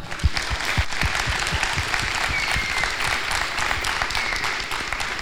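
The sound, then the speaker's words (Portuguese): An audience applauds steadily, a dense stream of many hands clapping at once with a few sharper individual claps standing out, sustained at an even level throughout. “Vamos aplaudir, galera!”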